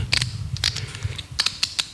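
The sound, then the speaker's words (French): A dose being dialed on an insulin pen: a run of small, sharp plastic clicks at an uneven pace, some in quick pairs, over a low steady hum with no voices. “je prends mon stylo d'insuline,”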